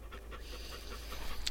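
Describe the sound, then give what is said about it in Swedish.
A police tracking dog pants quickly and steadily, a rhythmic run of short breathy huffs with low background rumble and no voices. “Så det är, ja, det är ovärderligt att ha en sån hund i tjänst.”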